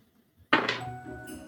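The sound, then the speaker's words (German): Dice are tossed onto a hard table, landing with a sudden clatter and a brief rattling tumble before settling. No one speaks. “Okay, ähm, ich würfel für sie mit äh, Verstand dagegen.”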